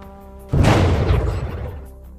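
A sudden, loud burst of gunfire erupts over a steady low hum, its heavy booming blast rumbling and crackling before fading out over about a second and a half. The shots are all aimed at a single gunboat. No one speaks.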